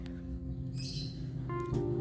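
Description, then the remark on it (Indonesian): Faint birds chirp in the background in the early morning over a low, steady hum, with a couple of short, high tweets and calls standing out midway and near the end. No one speaks. “backsoundnya agak burung-burung gitu ya sama roti-roti karena ini masih terlalu pagi untuk berbicara”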